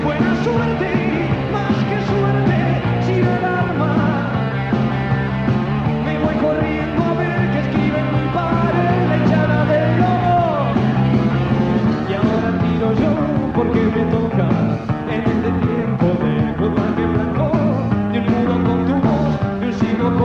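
A rock song plays loudly and steadily for the whole stretch, with a full band and a shouted-sounding vocal line riding over dense guitars and a driving beat.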